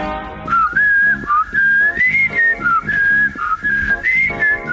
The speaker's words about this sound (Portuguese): Na HBO Portugal, uma viagem ao passado com o Verão Azul, a mítica série que pôs toda a gente a assobiar nos anos 80, estreia hoje no streaming da Homebox office. Ainda sabe assobiar?